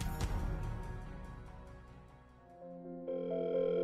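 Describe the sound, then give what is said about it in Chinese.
A soft whooshing hit and fading hum give way to a steady electronic telephone tone that starts abruptly near the end and holds flat and even, with no voices, as a phone call repeatedly fails because the person called is outside the service area. “莫雨嫣打了很多次电话，但一直提示着对方不在服务区”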